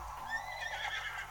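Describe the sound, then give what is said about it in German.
A horse lets out a single shrill, wavering whinny that rises and trembles before fading, fairly loud with no one speaking. “Geh doch weg, Pferdchen!”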